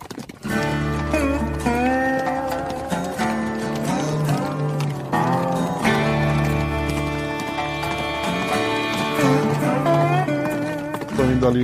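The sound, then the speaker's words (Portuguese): Steady clip-clop of horse hooves trotting along at a regular rhythm as riders head for the police station, mixed under a sustained tonal music bed that plays throughout without pause. “vocês se arrumam ali, pegam seus cavalos e começam a se dirigir, é isso?”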